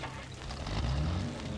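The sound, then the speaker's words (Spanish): A car engine turns over and catches on a rainy night, its low rumble swelling and rising in pitch as it revs, with no voices. “Encendieron el motor de un carro”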